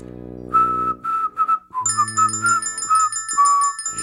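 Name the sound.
man whistling a tune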